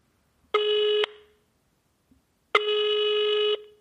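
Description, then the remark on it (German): Telephone dialing tones as a call is placed to the Berliner Wetterkarte in Berlin: two steady, buzzy electronic beeps at a middling pitch, a short one followed after a pause by a longer one, with no talking. “Ich rufe bei der Berliner Wetterkarte an.”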